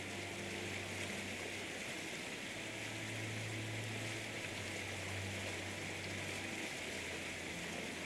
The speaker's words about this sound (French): Il te montre la chute du guerrier, ces cascades où le roi du Wakanda est couronné.